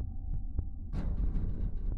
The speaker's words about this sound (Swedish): Min häftiga andning och mina hjärtslag fyllde utrymmet